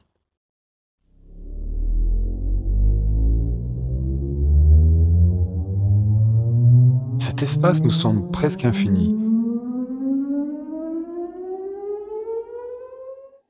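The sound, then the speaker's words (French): A steady electronic test tone glides slowly upward from a deep low pitch to a high one over about twelve seconds, loud and continuous, with a brief spoken phrase cutting in partway through. “L'oreille humaine a la faculté de percevoir un vaste ensemble de sons allant du grave à l'aigu.”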